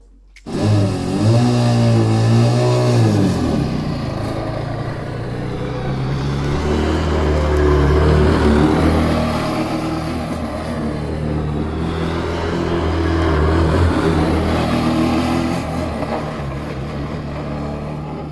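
A self-built formula racing car engine runs steadily for about eighteen seconds as the car drives along a straight, a loud buzzing drone whose pitch climbs and dips as it revs up and eases off. No one speaks over it.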